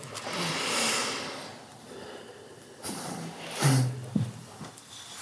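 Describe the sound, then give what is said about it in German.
Audible breathing with no talking: a long, airy breath drawn out over the first second or so, then a couple of sharper, snort-like breaths a few seconds later. “Atmen.”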